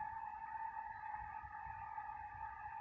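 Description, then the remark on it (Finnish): A commuter train (a K-train) passing on its way from Savio station about four kilometres to Korso station, heard as a steady, faint tonal whine over a low rumble that holds evenly throughout, with no voices. “Jahas, taas kuuluu junan ääni.”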